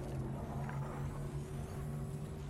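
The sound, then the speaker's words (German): A steady car engine hums while driving in a video game, with a constant low drone and tonal whine, moderately loud and even throughout, no voices. “Kommt in mein du? Auto rein!”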